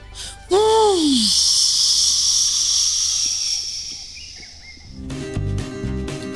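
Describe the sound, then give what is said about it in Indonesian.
A strong gust of wind, blown too hard at a bird's nest, whooshes in suddenly with a falling whistle, then blows as a steady, loud airy hiss for several seconds before giving way to a busier clatter of other sounds as a baby bird falls into a pond. “Kau menghembus terlalu keras dan seekor anak burung terjatuh ke kolam.”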